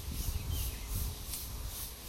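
A steady, faint chorus of cicadas chirring on a Sunday in Brasilia, a continuous high-pitched buzz with slight pulsing, over low background rumble and no voices.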